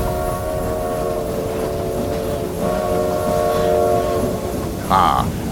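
A steam train arrives at full speed in the distance, trailing plumes of smoke and clanking metal, rumbling steadily, its sustained whistle-like tones sounding over a dense mechanical roar that swells slightly, with a short sharp burst of sound near the end.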